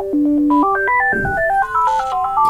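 A phone rings with a bright electronic ringtone, a quick melody of stepped, beeping notes that plays loudly for a couple of seconds with no one talking.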